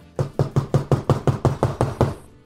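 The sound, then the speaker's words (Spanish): Rapid knocking on a hotel room door, about ten firm, evenly spaced raps in quick succession, fairly loud, with no voices. “Ya estaba en mi cuarto, yo dormí, porque era este, en un hotel y ya me fui a mi cuarto y de repente oigo que tocan la puerta.”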